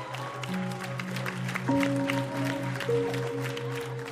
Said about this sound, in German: Als er wieder verschwindet und du festen Boden unter deinen Füßen spürst, hörst du sogleich, wilden Jubel um dich herum.